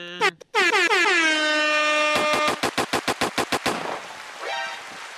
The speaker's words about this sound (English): What do you mean by that? What do you mean by that Mortal Kombat sound